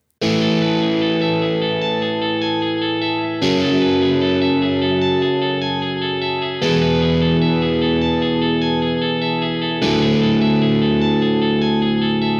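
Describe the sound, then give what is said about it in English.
Heavily distorted, effects-laden electric guitar, made by heavily processing a classic clean guitar sound, plays four long sustained chords, each about three seconds, thick and buzzing with rich harmonics and a shimmering, chorus-like wash, loud and steady with no talking. “So I took a classic clean guitar sound and then I just fuck the hell out of it.”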